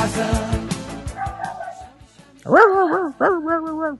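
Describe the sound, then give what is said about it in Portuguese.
After some background talk, a voice breaks into two loud, drawn-out dog-like barks and yelps that rise and fall in pitch, imitating dogs barking. “É, os, os, os macacos, os, os cachorros já estão soltos aqui.”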